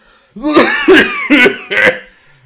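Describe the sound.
Someone imitates the hoarse, raspy cough of a person who is ill, using their voice: four gravelly, throaty bursts in quick succession, fairly loud, with no other talking.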